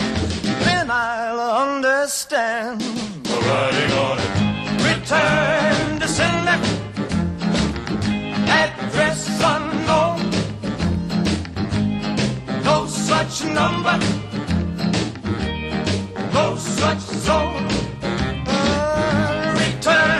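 An upbeat rock and roll song plays on Val 202 radio, loud and continuous, a lead vocal riding over a driving band with a steady, bouncy beat throughout.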